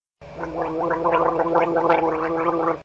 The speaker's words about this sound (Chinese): 我一咕噜的从小床上跳了下来，拿着小牙刷，仔仔细细的刷起牙来。